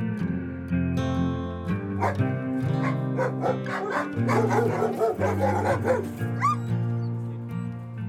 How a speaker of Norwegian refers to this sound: Dette er lyden av to schæfere. De står og logrer i en hundegård på Fetsund.